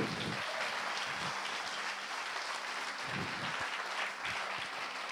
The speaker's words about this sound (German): Und wenn du dich traust, so wie heute diese, diese fünf, sechs Leute, die heute erzählt haben von Jesus. War doch stark, oder? wollen wir ihnen alle Ehre geben dadurch, wollen wir einen Applaus ihnen geben. Mutig.